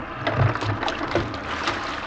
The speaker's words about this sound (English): Boys, listen. And a new sound struck the ears of the men in the boat the sweet, low thunder of the surf on the shore.